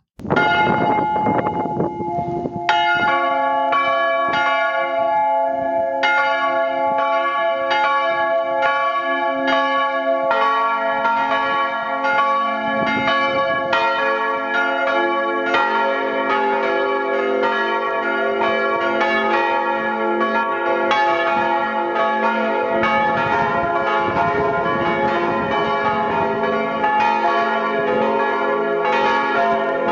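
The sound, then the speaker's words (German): A full peal of church bells ringing together, dense overlapping strikes with long ringing tones, loud and sustained for the whole stretch without any voices. “Wenn alle Glocken zusammen hätten geläutet, hätte das so getönt.”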